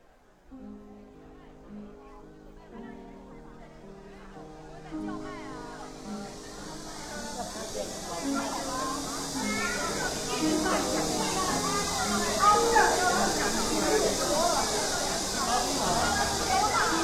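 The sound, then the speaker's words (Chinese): A steady, high-pitched cicada drone after rain builds over a busy tourist crowd on Kuanzhai Alley, with overlapping voices and chatter murmuring underneath as the buzzing grows louder and more constant. “两种非常嘈杂声音的碰撞，一个是蝉的声音，一个是宽窄巷子上游客人流的声音。”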